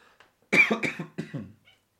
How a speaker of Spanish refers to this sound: les pido una disculpa por esa tos.